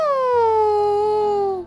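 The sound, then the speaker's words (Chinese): An eagle's whistling cry from the sky: one long, loud, piercing call that glides slowly downward in pitch, with a faint low hum underneath. “突然，空中传来了一阵“咻咻””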